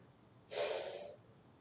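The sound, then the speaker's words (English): A single sharp breath through the nose, with the nose held close to the top of the microphone, a loud, airy burst lasting about half a second before fading back to a quiet background. “If I put my nose close to the top and I breathe,”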